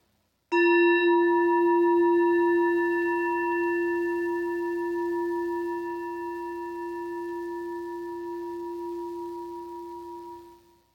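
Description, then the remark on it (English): A single meditation chime is struck once and rings out with a clear, pure tone, its sustained resonance slowly fading over about ten seconds with no voices. “As we listen to the chime, let us remember our connection to each other and the world around us.”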